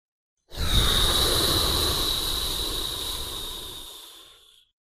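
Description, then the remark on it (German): A single slow exhale hisses out through the mouth for about four seconds in a breathing-exercise demonstration, the air hissing past both sides of the tongue, fairly loud, with a thin whistling edge that gradually fades away. No one speaks. “Und vielleicht merkst du jetzt, dass es die Luft leicht an deiner Zunge links und rechts vorbeizischt. Ich mach's einmal vor, hört sich vielleicht ein bisschen lustig an, vielleicht kannst du ja mal schauen, ob sich das bei dir ähnlich anhört.”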